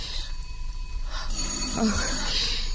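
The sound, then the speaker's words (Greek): A doorbell rings with a steady, bright electronic tone that holds through the whole moment, clear over a low background hum. “Κάθε φορά που ακούω το κουδούνι κόβεται η ανάσα μου.”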